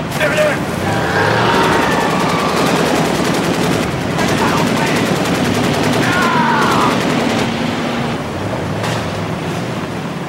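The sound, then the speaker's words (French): Video game gunfire from the game Crysis rattles almost continuously over a loud, dense wash of noise, with rapid automatic bursts and sharp repeated shots throughout, and faint shouting voices mixed into the din. “C'est un peu quand même toujours les mêmes sons de jeux vidéo.”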